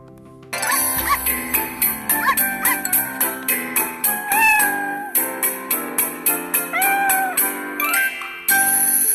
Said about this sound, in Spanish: Vamos a escuchar una canción para la tenencia de los animales eh, de buena compañía.